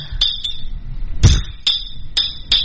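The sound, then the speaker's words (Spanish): Glass bottles of Glucosoral rehydration drink clink together several times in an irregular rhythm, bright ringing taps, with one heavier knock in the middle over a low background rumble. “Es porque es en envase de vidrio, fiera.”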